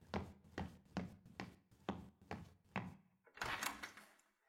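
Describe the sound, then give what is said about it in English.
Eight steady, solid knocks land on a door at an even pace, followed by a brief rattling clatter as the door seems to move. No one speaks. “Now who's knocking on my door?”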